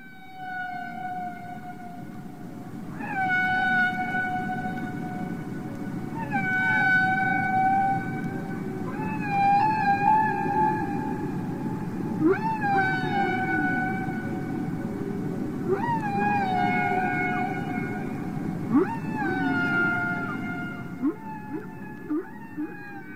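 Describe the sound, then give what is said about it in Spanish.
Humpback whale song: a series of rising, tonal moans and whoops repeating every few seconds, rich in harmonics, over a steady low underwater rumble, with no voices. “Ahora escuchábamos cantar a las ballenas jorobadas y estos seres son capaces de apropiarse de estos cantos que escuchamos brevemente porque son cantos bastante largos”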